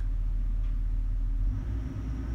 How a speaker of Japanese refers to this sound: 外の工事の音が